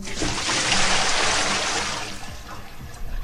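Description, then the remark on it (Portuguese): A loud rush of cold water pouring and splashing as a bucket is dumped, noisy for a couple of seconds before tapering into trickling and dripping. “E você está precisando também de um balde de água fria.”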